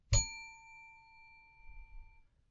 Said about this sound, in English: To help me control my rowdy panel of recidivists and reprobates, I will employ what I have called the inappropriate bell. An example of this would be